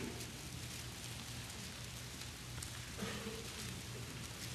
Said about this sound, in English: Listen to that sound. Isn't it marvelous? Isn't that wonderful? Sign of a church headed in the right direction. pages of God's Word turned.